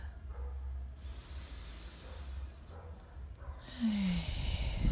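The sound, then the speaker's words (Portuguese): A slow, deep breath taken unhurriedly to prepare: a long airy inhale, a brief pause, then a louder, rushing exhale, with no talking. “Vamos nos preparar sem pressa, fazendo uma respiração profunda.”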